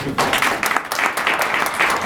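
An audience at an awards evening applauds steadily, many hands clapping in a dense, even patter that stays fairly loud throughout.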